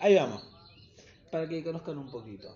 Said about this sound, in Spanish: Eh, el sonido que están escuchando de los pajaritos son de mentira. Los puse porque creo que creí que me iba a traer un poco de relajación y la verdad que me están como poniendo más nervioso todavía.